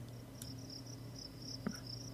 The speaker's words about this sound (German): Ja, hier schön die Grillen nachts